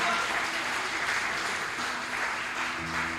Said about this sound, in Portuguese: Você pode aplaudir bem forte a Jesus?